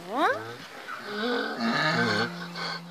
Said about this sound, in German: Schon von Weitem erkennen die zehn Esel Anahit und dann iahen sie alle zusammen. Also ich mag es, wenn sie IA machen, weil es dann sehr laut ist. Ich finde es lustig und es ist schön. Die blasen die Nüstern so weit auf.